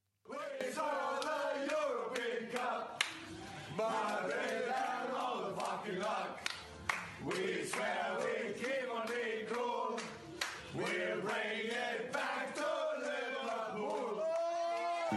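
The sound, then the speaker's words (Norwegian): Jürgen Klopp and frontmen of a band, filmed in the early morning hours in Kiev, bellow a song about the final together, loud and ragged, with voices sliding loosely in pitch and shouting over one another without a break. “Men der sang han om finalen, og nå synes jeg det er på tide med et gjenhør med den sangen.”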